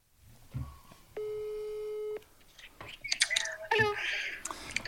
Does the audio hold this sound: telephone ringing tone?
yes